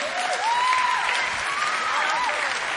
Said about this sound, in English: So Sam, give Sam a round of applause, by the way. Phenomenal.